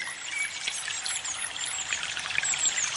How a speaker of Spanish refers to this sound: Nos vamos acercando hacia un río y nos vamos a sentar debajo de un árbol frente al río.